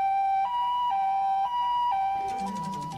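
A loud ambulance siren alternates between two pitches in a steady hi-lo pattern, roughly twice per second, with a low engine rumble rising underneath toward the end.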